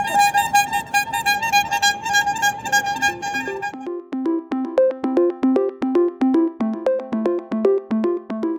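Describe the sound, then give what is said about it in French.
A loud, sustained multi-tone horn honk blares for about four seconds, then cuts to a bouncy, plucked musical jingle with a steady rhythm. No one speaks. “c'est sur ce coup de klaxon que s'achève ce 31e épisode de Monde Numérique.”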